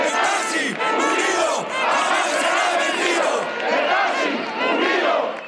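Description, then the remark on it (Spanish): A large crowd shouts and yells together at violent street protests by taxi drivers against Uber in October 2014, in a loud, continuous roar of many overlapping voices, with rising and falling surges of angry chanting and no pause throughout. “Había manifestaciones, sobre todo en octubre de 2014, donde había episodios pues muy muy violentos eh, y muy muy fuertes.”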